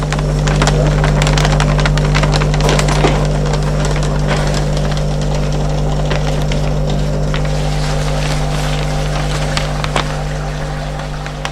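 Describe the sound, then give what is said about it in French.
A paper shredder runs steadily, its motor droning with a low hum while paper is torn and crunched in dense, crackling bursts, loud and continuous throughout with no voices. “Adèle en train de broyer les papiers dans la machine à broyeuse.”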